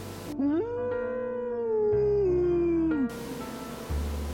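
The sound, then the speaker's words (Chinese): A dog lets out one long, drawn-out howl, tonal and fairly steady in pitch for nearly three seconds before sliding down and cutting off, with no one speaking. “牛的叫声，或是犬吠，”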